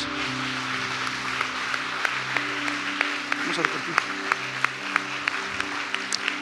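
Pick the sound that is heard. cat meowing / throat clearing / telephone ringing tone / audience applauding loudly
audience applauding loudly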